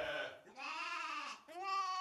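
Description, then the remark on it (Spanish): Goats bleat in three quick, wavering calls, loud, each a nasal, quavering cry with short gaps between, and no one speaking. “día como cualquier otro día en la vida habitual de un pastor llamado Caldi, en Etiopía, salió con sus cabras hacia la montaña.”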